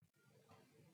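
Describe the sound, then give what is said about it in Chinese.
A single drawn-out 'meow' voiced by a person imitating a cat answering in a told story, steady and fairly loud, lasting about a second. “喵，猫回答道。”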